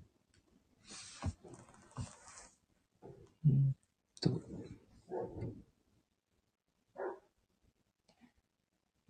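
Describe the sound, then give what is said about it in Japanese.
A large dog barks somewhere in the distance, several separate woofs spread out with pauses between them, faint and muffled against a quiet background. “こうの方の大型犬が鳴いております。”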